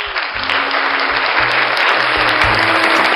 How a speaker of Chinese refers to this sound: 掌声有请